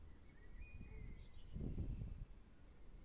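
bird, birds chirping

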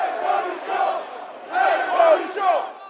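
crowd, street protest crowd shouting

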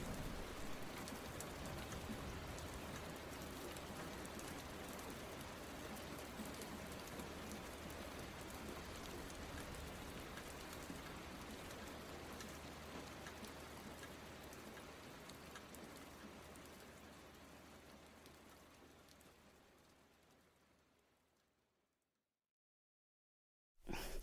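nature, rain falling

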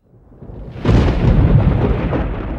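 nature, loud thunder rumbling

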